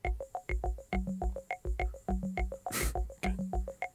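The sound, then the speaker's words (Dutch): A sampled drum machine preset loop, slowed down so it sounds lower in pitch, with steady repeating hits, low thumps and tonal blips in a tight rhythm, plus one noisy crash-like burst near the end. No voices. “Die sampled dat loopje. Hij maakt het een beetje trager, waardoor het een beetje lager gaat klinken.”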